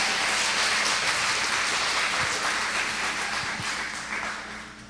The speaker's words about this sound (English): Um, so I'd like you to give a big round of applause for God. He's up there, He made us.